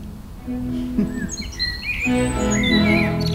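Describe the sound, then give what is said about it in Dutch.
A blackbird and a robin sing together in a garden, trading clear, melodic whistled phrases and bright warbles over a low, steady background hum, with no one talking. “Het mooiste aan die samenzang is misschien dat, dat je het gevoel krijgt dat eh, in jouw tuin de merel en de roodborst zich heel gelukkig en welkom voelen.”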